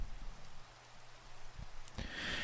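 Steady, soft rain hisses continuously with no voices, swelling into a brighter, louder wash near the end, with a faint low rumble underneath.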